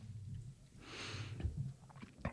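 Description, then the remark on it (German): Quiet mouth sounds of someone chewing a bite of food and swallowing, with soft wet clicks and a brief breathy rush in the middle, no talking. “So, kurz runterschlucken.”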